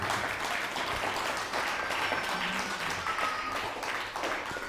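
Steady, dense applause from a crowd in honour of Spain, many hands clapping at once in a continuous loud wash that holds evenly for the whole stretch, with faint whistles or cheers threaded through.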